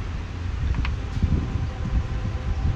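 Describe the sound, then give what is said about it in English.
A steady low rumble of a train going through rolls on throughout, mixed with outdoor wind noise and a couple of faint, brief high squeals early on, on a day in April. “You hear that train back out there? Oh yeah, man. Train's going through.”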